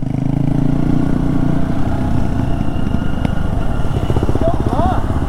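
Honda XR150L and KTM XCF-W 350 dirt bike engines run steadily on a rough, dusty trail at Bent Creek Gap, Pisgah Ranger District, near the Blue Ridge Parkway. A rough, buzzing drone fills the whole stretch with a throbbing low rumble and slight shifts in pitch, plus a brief high squeal near the end.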